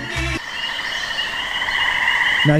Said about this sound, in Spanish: Pongo un grillo ahí.